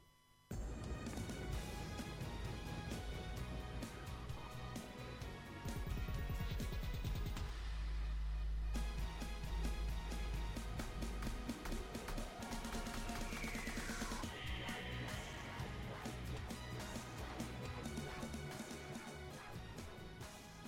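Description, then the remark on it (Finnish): Dense, loud electronic dubstep-style music with heavy sub-bass drops, choppy glitchy synths and pounding beats, playing continuously at full volume with no voices; a dubstep remix of a song generated by a machine, the Wap Machine. “Siitä voisimme ottaa pienen maistiaisen”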